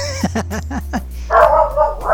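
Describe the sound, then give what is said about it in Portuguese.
A dog gives a quick run of about five sharp barks, followed by a longer, higher-pitched whining sound, all over a steady low background hum. “É, e até o cachorro seu gostou aí, viu?”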